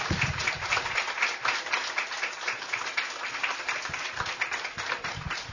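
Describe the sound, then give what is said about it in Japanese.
Sustained audience applause, a dense wash of many hands clapping steadily at a fairly even, moderate loudness throughout, with no voices on top. “大きな拍手をどうぞ。”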